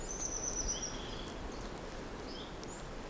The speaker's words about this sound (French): Et euh, ici, là, puisque tu viens de Touraine et que je suppose c'est la première fois que tu viens dans nos régions ariégeoises, quels son qui émanent de la forêt de marque Bah, particulièrement les oiseaux, là, qu'on entend.